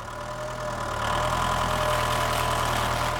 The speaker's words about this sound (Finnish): Jäimme Virtasen kanssa kahden ja hän alkoi kääntää traktoriaan ympäri.